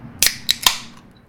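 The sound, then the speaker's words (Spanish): Three sharp metallic clicks in quick succession, crisp, as the tab of a can of Cruzcampo beer is pried and cracked open, with a brief faint fizz trailing off afterward. “Ese es el sonido de la Cruz Campo en su cabeza y en nuestro podcast.”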